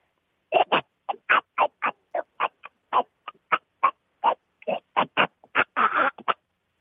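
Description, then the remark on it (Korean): A person imitates by mouth the voice of the small robot from the first Transformers film with a rapid run of about twenty short, clipped, buzzy syllables, chattering and squawky, fairly loud, with no ordinary speech. “트랜스포머에 나오는 조그만 로봇 예, 목소리 들어보겠습니다.”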